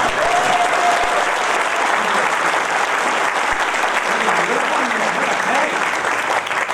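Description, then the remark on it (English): A crowd applauds steadily, a dense wash of clapping at an even, loud level that holds from start to finish, with faint voices murmuring underneath. “the reason the applause is so quick is because there are some people who he said should have passed past it”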